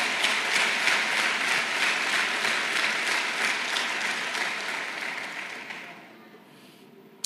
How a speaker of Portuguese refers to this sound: Dá um aplauso forte para Jesus, aleluia.